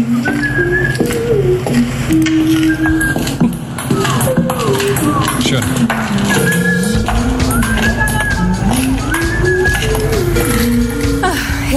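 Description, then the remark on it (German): Office soundscape from the website imisstheoffice.eu: dense, steady background clatter and irregular light tapping of someone playing table tennis in the office, threaded with shifting electronic tones and beeps, with a faint murmur of voices underneath. “ja, aber irgendjemand spielt da Tischtennis im Büro.”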